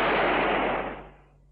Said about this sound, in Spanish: le apunta con la pistola, le va a disparar y de hecho le dispara. Pero son balas de fogueo.